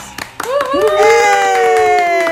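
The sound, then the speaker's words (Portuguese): Audience applause welcoming guest Moriá Vélez onto a show: a few scattered claps at the start, then a loud, sustained cheering voice rising in pitch and holding a long whoop over the clapping. “Uma salva de palmas.”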